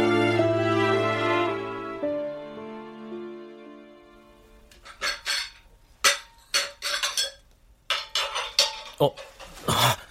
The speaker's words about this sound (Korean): 부엌에서 달그락거리는 소리가 들려온다.